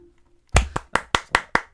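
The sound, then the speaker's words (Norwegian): A brief quiet pause with a faint low hum, then seven crisp hand claps in a quick, steady rhythm, each sharp and loud, with no voices; the claps are made to sync a recording after a count of one, two, three. “Hva, klappa du i det hele tatt?”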